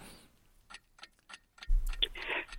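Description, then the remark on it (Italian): A 30-second countdown timer ticks in a steady, regular rhythm of sharp clicks, then a loud, buzzy alarm-like burst with a low rumble takes over near the end. “quindi al partire del timer dei 30 secondi eh, aggiunga la sua voce alla borgopedia, vada.”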